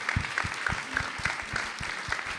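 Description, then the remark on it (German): An audience claps steadily, a dense patter of many hands with sharp irregular slaps throughout, moderately loud and sustained without voices on top. “Das, ist war ein Applaus wert.”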